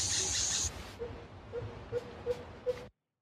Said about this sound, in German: Ähm jetzt hörst du erstmal Dschungel. Da ist es. Das sind Affen?